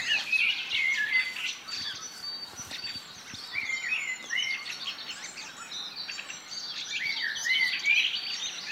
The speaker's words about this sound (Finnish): Mustarastas alkoi laulaa komeasti sitten siinä metsässä. Niin, meillähän oli tuossa sellainen oksa, missä solisti vaihtui koko ajan. No, mustarasta sai kunnian aloittaa. Kyllä. Se on kyllä komea laulaja mustarasta.